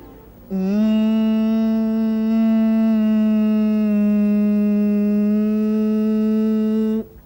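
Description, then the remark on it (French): A single voice holds a steady, buzzing drone for about six seconds, imitating a trolleybus air compressor as it recharges automatically from about 3 kg to 8 kg of air. It stays loud, with an even pitch, then stops abruptly. “monsieur du dépôt m'a expliqué que quand euh, on arrivait à environ 3 kg d'air dans le, compresseur, euh, il doit se recharger automatiquement jusqu'à ce qu'on arrive à 8, 8 kg d'air au moment où il se recharge, ça fait comme ça.”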